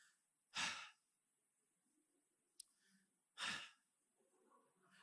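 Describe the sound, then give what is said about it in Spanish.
A voice imitates a wife's two loud, exasperated huffing exhales in bed, breathy bursts about three seconds apart, with a brief faint click between them and no talking. “Mi esposa, ella es la que se resopla.”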